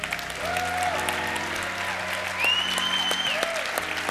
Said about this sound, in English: Give them another big hand right now.